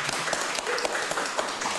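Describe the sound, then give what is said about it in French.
An audience breaks into applause for a bookseller, a dense, steady patter of many hands clapping at once that holds at an even level for the whole couple of seconds, with no voices over it. “Et je pense qu'on peut, on peut l'applaudir”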